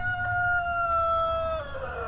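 A rooster crows once, a long, steady, strained note that drops off at the end, over a low constant rumble. No voices are heard.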